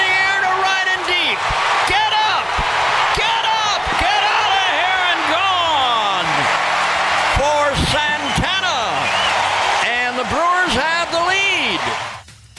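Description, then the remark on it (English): A baseball stadium crowd roars loudly and continuously in celebration of a Milwaukee Brewers home run by Carlos Santana, the Brewers' back-to-back homers, with whoops and yells rising over the din and a few sharp slams breaking through. “The crowd is rocking, and uh, they leave him in there for one more batter.”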